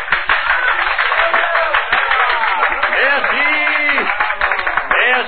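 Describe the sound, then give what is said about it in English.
Steady audience applause: a dense, crackling wash of many hands clapping, continuous for about five seconds, with some crowd voices and cheers rising briefly partway through. “Then applause drew me from my unhappy reverie,”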